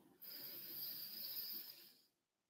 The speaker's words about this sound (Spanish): Si ponen la mano en el pecho y ponen la mano en el estómago, lo que tiene que em, inflarse, por así decirlo, es el estómago, ¿ok? Entonces respiramos, botamos, hacemos otra respiración.